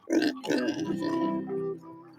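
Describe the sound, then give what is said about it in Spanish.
A pig grunts twice in quick succession, then lets out a longer, drawn-out oinking call that fades away. It is fairly loud, with no talking. “¿Hasta los cerdos? No, los cerdos no.”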